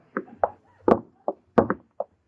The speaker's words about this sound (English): Lady, will you please stop knocking on those lifeboats? All right, I will. I don't wish to be rude, but it's just against the rules.